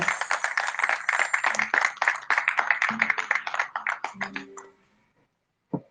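An audience at an event of the art school Instituto 814 breaks into loud, steady applause for two of the institute's teachers, many hands clapping together for about five seconds before it tapers off and stops, followed by a short pause and one brief sound.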